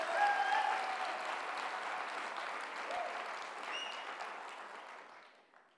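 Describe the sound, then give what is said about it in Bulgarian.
An audience claps their hands in steady, dense applause that holds at an even level for several seconds before tapering off at the end, with a few faint voices mixed in. “О, ако ръкопляскаш, ръкопляскай, като че си навярваш.”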